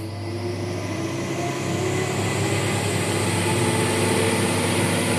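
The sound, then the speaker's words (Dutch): A small closed-loop wind tunnel runs, a fan below driving the air around a closed loop, with the flow conditioned for low turbulence and uniform speed. A steady, unbroken roar of rushing air over a deep droning fan hum, holding a constant loud level throughout, with no voices. “Nou, op naar de windtunnel.”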